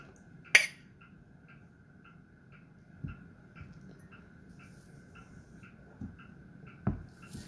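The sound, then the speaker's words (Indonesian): A single sharp, bright clink of glasses in a toast rings out near the start, followed by a few soft dull knocks over a faint steady hum. No one speaks. “Cheers dulu ya kal segala cheers.”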